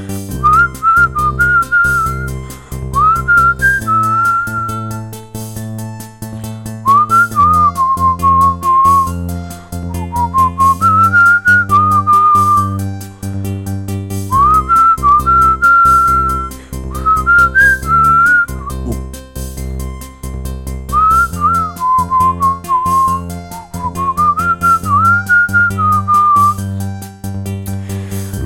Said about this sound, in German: gepfiffenes Solo